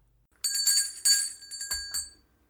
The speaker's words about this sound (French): Vous permettez que je m'habille. Il se lève et sonne son valet de chambre.